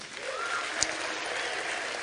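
A steady round of applause from a crowd at the Cliffmas Carols 2015 event, given for the sponsor Beacon. It is dense and even throughout, with many hands clapping together and one sharper clap standing out partway through. No one speaks.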